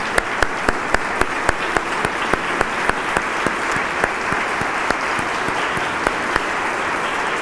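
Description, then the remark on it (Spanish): An audience applauds the Eternal steadily for several seconds, a dense wash of clapping with a few sharper, evenly spaced claps standing out above it. No voices are heard. “Dejen su Tanakh y aplaudimos porque el Eterno es grande y se merece eso y más.”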